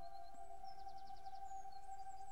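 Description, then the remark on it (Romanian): Soft bird chirps in quick, evenly spaced runs, with a few higher whistled notes, heard faintly over a steady low humming drone. No voices. “Păsările parcă-ți spun, trăiește din inimă.”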